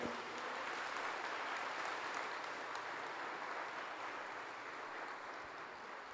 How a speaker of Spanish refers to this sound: Dale un aplauso fuerte a Dios por ello.